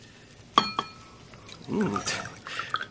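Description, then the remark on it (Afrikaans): Two quick wine glass clinks ring out, followed by a steady splashing pour of wine into a glass, with a brief murmured voice alongside. “Glasie wyn?”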